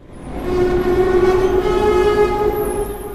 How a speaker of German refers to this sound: Gestern Nachmittag fuhr im Frankfurter Hauptbahnhof ein Zug aus Wien ein darin rund 20 Flüchtlinge aus der Ukraine.